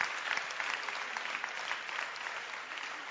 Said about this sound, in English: Clap your hands for the Bacenta leaders.